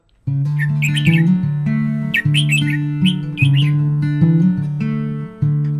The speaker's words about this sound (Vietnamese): Tiếng chim giữa vườn dưa.